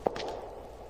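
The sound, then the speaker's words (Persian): A few footsteps echoing through a mansion: one sharp step followed by a couple of softer ones in quick succession, over a low, steady background hum with no talking. “خوب گوش کنید صدای قدمهایش را نمیشنوید؟”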